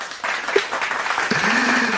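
A burst of applause from a small group, steady dense clapping that rises and holds for a couple of seconds, with a faint voice or cheer mixed in toward the end.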